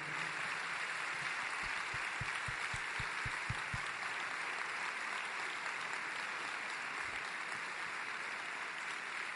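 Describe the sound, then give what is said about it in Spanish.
An audience applauds steadily for several seconds for a man being honoured, a dense wash of clapping that stays fairly even throughout, with some stronger individual claps standing out near the beginning. “Un aplauso muy merecido.”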